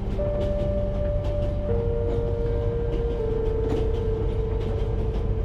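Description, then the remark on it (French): The luxurious Transvoyage Express steam train rolls along on a long journey with a steady, loud low rumble and rhythmic clatter, while a few long, even tones hold above it. No voices are heard. “vous êtes installé confortablement pour un long voyage dans le magnifique train à vapeur Transvoyage Express.”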